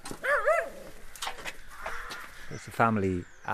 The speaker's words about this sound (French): Et un concert de corbeaux dans les arbres au-dessus de notre tête.